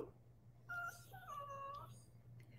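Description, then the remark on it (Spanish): A dog named Hércules whimpers softly, giving a few thin, high-pitched whines in quick succession that rise and waver before trailing off, with a steady low hum in the background and no one speaking. “Ay, señor, ¿y usted por qué está llorando?”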